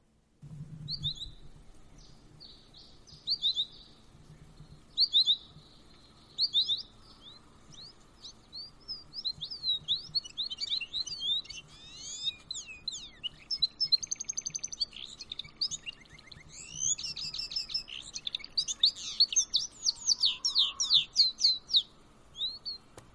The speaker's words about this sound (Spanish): Y para empezar, pues les quiero poner el sonido de esa ave, por si a algunos pues no les fuera este del todo familiar los canarios. Ahí va.